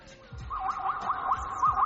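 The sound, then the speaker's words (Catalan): A zebra call: a quick, repeated warbling yelp that rises and falls in a steady rhythm, fairly loud, over a faint low rumble of background noise. “Doncs això fa una zebra”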